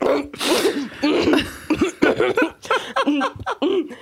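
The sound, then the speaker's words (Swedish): A voice imitates someone in a social drinking situation who gets something in their throat and tries to hide the cough: a series of short, strained bursts and muffled hacks, mixed with breathy, half-voiced sounds, fairly loud. “det är om någon i en sån social situation där det dricks får något i halsen och försöker oh, dölja hostan.”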